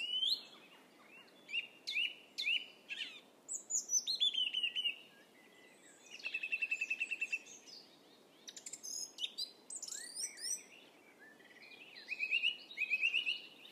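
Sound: birdsong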